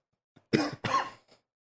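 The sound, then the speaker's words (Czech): Two quick, harsh coughs in close succession, fairly loud, with a faint breath after and no talking around them. “Co mám kašel?”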